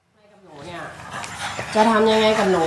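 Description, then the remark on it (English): Dogs bark and pant, their drawn-out, whining yelps growing steadily louder over a couple of seconds, at the Eagles training complex in South Philadelphia. “Look at those dogs. Why would you do that to your dogs?”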